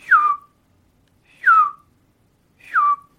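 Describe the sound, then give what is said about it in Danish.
Three short descending whistles, each sliding down in pitch, spaced about a second apart and evenly repeated. A person whistling an imitation of a bird's call, clear, with no talking. “Jeg, afsiger, jeg afgiver jo bare deres... Øh, deres sang eller deres, deres tuden.”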